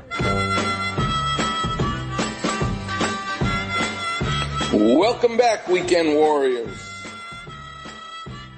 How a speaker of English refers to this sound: What you're hearing now is a harmonica.